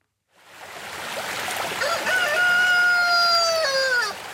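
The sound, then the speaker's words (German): A rooster crows once in a long, drawn-out call that rises and trails off, heard clearly over a steady rushing background like flowing water, on a lakeshore near a copper mine in Romania. “Wir sind in einer Welt, in der Hähne einsam krähen, Kirchen unter Wasser stehen, Seen sich aus kupferroten Bächen speisen.”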